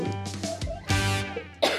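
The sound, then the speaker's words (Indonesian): A few harsh coughs in quick succession, with a throaty, raspy edge and brief pauses between bursts, ending in a louder final cough. “sorry sorry batuk.”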